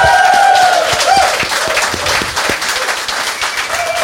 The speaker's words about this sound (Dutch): Hoe lang is dit geleden, David, dat jij zo'n applaus